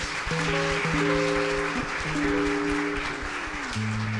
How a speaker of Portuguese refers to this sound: Aplauda o nosso Deus.